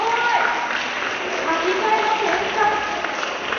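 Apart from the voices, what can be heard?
audience applause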